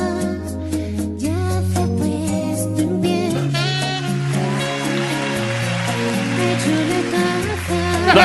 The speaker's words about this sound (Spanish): Esos aplausos son grabados, ¿sabes? Obligados.